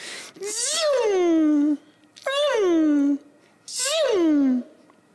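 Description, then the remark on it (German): A voice imitates a Maserati car engine with three loud, buzzy vocal bursts, each rising briefly and then sweeping down in pitch like a car roaring past, separated by short pauses. “Ist wahrscheinlich ist es ein Maserati, was ich hiermit jetzt mal kurz vormache.”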